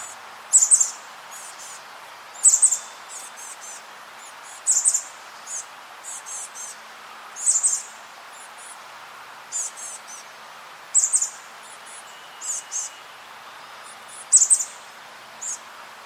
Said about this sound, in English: And so, just for uh, reference, I'll go ahead and play uh, Chestnut Back Chickadee uh, calls here.